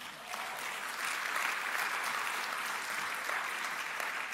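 A group claps steadily for a few seconds, a dense, even wash of hand claps holding at a constant level with no voices breaking through.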